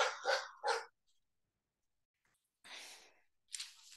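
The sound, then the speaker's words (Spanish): A dog barks three times in quick succession, then falls silent before two longer, rougher bursts follow. No one speaks. “odio a mi perro, esperen que voy a pegar un grito.”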